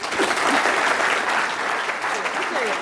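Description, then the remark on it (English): An audience breaks into steady, sustained applause welcoming a co-author of a new book to speak, a dense wash of many hands clapping at an even loudness throughout, with a few faint voices mixed into the crowd. “So let's give a really warm welcome to one of our own,”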